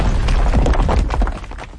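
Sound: explosion sound effect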